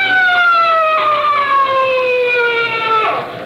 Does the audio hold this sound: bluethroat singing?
no